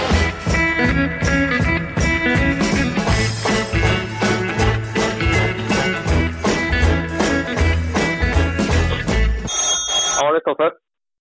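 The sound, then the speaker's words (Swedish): An outgoing phone call rings through a line, a loud, steady, rhythmic tone pattern repeating for about ten seconds before cutting off abruptly as the call connects. “Ja, vi ringer väl han får se vad fan som händer.”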